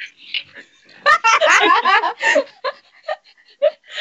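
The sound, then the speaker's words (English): A voice imitates a whale call with a run of squeaky, warbling vocal bursts, dense in the middle and trailing off into short chirps, fairly loud, with laughter mixed in. “Or do you want me to do like a whale, your favorite animal?”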